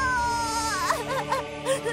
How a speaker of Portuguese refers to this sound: Ei, por que tá chorando? Você não é homem?